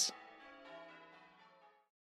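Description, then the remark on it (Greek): A single church bell strikes once, its bright clang settling into a long, shimmering hum that fades out after nearly two seconds. No voices accompany it. “Ο κόσμο έτρεξε να ειδοποιήσει τον Δήμαρχο και τον Παπά, ο οποίο και άρχισε να βαράει τι καμπάνε έτσι που δεν τι είχε ξανακούσει ποτέ η πόλη.”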